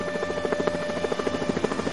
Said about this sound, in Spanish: ¿Por, qué hay tantos helicópteros?